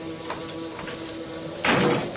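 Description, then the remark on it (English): A quiet hum with faint knocks gives way to a sudden, loud back door closing near the end, its broad thump and rattle lingering briefly. No one speaks. “Who left this back door open?”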